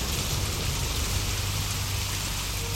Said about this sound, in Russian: Дождь все усиливался, вода бурными потоками стекала в кювет.